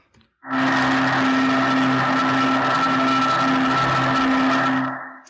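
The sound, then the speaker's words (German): A freezer's steady electric hum, recorded with a wire recorder and a stethoscope put against the wall, with a little equalizer applied: a strong low tone and a brighter whine above it, loud and unchanging for about five seconds before cutting off, with no one speaking. “So what you're about to hear is the sound of a freezer just with a little bit of equalizer on it, and that's it.”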